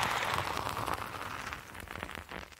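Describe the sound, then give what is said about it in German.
Drinking beer and wet lip smacking into a microphone, a steady fizzy crackle of small clicks and smacks lasting a few seconds, with no one talking. “Und immer schön ins Mikrofon schmatzen, das mögen die Leute.”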